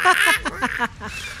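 A rapid series of bright, shrill seagull calls repeats in quick bursts before trailing off into fainter cries.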